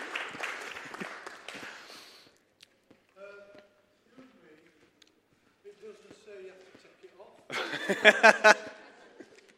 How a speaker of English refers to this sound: You can sit down now. Thanks. Round of applause. Thank you.